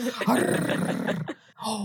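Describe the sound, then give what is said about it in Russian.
A man growls and roars like a wild animal while crying and yelling out his emotions, a loud, rough, sustained vocal snarl lasting over a second, then a brief pause and a shorter growl. “Всегда можно плакать как мужик. Это плакать и орать так вот. И рычать”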